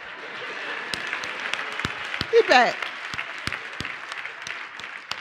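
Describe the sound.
An audience claps steadily throughout, a dense wash of hand claps with a few sharper individual slaps standing out. A man's voice briefly speaks over the applause partway through.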